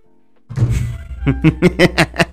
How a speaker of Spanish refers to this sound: y encima golpear la mesa y se oye.